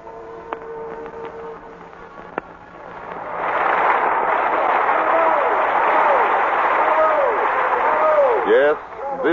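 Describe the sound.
Loud, sustained applause with bravos in a hall at the Sarah Siddons Award ceremony, swelling after a few seconds into a dense, continuous roar of clapping, with scattered voices calling out over it and a brief dip near the end.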